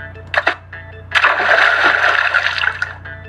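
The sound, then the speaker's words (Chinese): A couple of quick watery splats give way to one big, loud splash as the cartoon bear Big Butt Bear jumps bottom-first into an outdoor swimming pool, splashing all the water out. The water surges and sloshes for about two seconds before dying off, with no voices. “大屁屁熊一屁股跳下去之后，泳池的水全都溅出来了，并且一滴不剩。”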